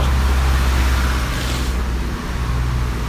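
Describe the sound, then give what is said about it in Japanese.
A steady, loud roar of city street traffic with deep engine rumble in the Tsukiji area of Japan as rain starts to fall, with one vehicle swishing by in the middle before the noise settles back to a constant hum. No one speaks. “雨が降ってきてるエリアなので傘を差してちょっと反対側渡りましょうか車が左右来てないことを確認しましてていうかあそこに横断歩道あるかな”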